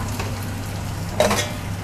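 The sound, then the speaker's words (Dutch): Steady crackling sizzle of chicken frying in a pan, a continuous hiss with a low hum underneath and a brief louder burst of spattering near the end. “dan hoor ik nog steeds de kip, maar dat geeft niet.”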